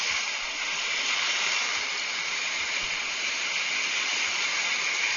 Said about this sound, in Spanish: Miren qué increíble, duró un poco más, pero sí me puso el sonido del mar. Escúchenlo. Me sorprendió.